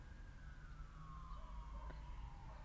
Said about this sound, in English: This is like the second one. When I first started recording, it's like 11 minutes in like there was a siren there was a, a set of sirens going the other direction um,